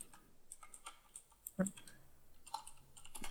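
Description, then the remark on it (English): Rapid, irregular clicking of computer keyboard keys, fairly quiet, with one sharper louder keystroke partway through and no voices, as someone edits on the fly. “I'm going to edit on the fly, so enjoy my clickety clacky keys.”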